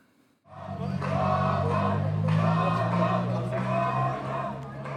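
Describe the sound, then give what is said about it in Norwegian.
A crowd of young Turks shouting 'tamam' together at a rally in a loud, sustained roar, with rhythmic surges of chanting voices rising and falling over about four seconds after a brief quiet start; a recording shown on a big screen in a park in Istanbul. “Tamam roper en gjeng unge tyrkere.”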